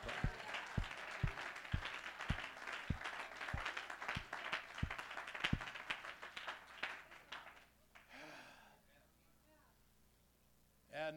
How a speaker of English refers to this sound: Oh, come on, let's clap our hands.